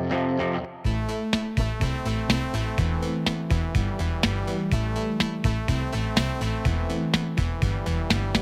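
An electronic synth-pop song plays loud and close, with a steady mechanical beat, stepping synthesizer bass notes and bright sustained synth chords, all instrumental, starting after a brief fading intro.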